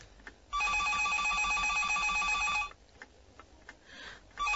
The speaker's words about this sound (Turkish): Telefon. Duydun mu? Telefon çalıyor